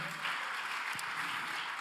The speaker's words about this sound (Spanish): Denle un aplauso fuerte al Señor.